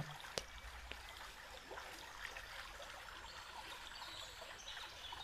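A small stream trickles and babbles steadily, a continuous gentle water sound with occasional light splashes, fairly quiet and unaccompanied by any voices.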